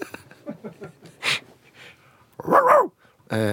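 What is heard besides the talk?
pet dog barking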